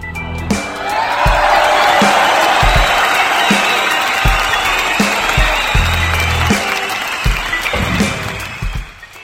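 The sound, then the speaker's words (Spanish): Loud, sustained applause from a crowd with cheering and whoops mixed in, dense clapping filling the whole stretch and tapering slightly at the end. “Fuerte el aplauso.”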